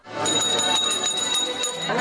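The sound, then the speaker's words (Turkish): A school bell, rung by Turkish Education Minister Nabi Avcı to open the new school year at Ankara Balgat Technical and Industrial Vocational High School, rings loudly and continuously, a shrill, rapidly buzzing electric ring without pause, with a hint of background voices underneath. “Evet ve ilk zilimiz çalındı.”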